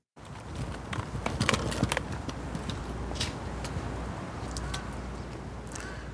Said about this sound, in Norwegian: Det vi hører altså Fridtjof Nansens plass, en av Oslo sentrums mest sentrale plasser, rett foran rådhuset. Ikke en bil.